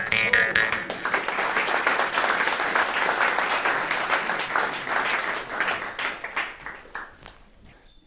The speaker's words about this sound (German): Applaus, meine Damen und Herren!